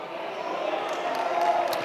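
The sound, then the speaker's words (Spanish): A church audience answers "amen" together in a fairly subdued spoken response, many voices blending into a steady, moderately loud, reverberant murmur that holds for a couple of seconds. “Pensé que el amén iba a ser más fuerte, hermano.”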